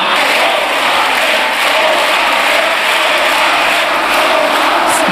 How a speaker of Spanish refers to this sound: Escuchar a parlamentarios gritarle cobarde, cobarde al presidente del gobierno es algo que no esperaba escuchar de ustedes.